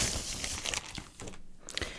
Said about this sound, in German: es knistert schon ein bisschen, das tönt aber überhaupt nicht nach Papier. Nein, da hast du recht. Was du hörst, ist Plastik. Das Buch, das ich ausgewählt habe, ist nämlich doppelt verpackt. Ich nehme es zuerst mal aus dieser Plastikhülle.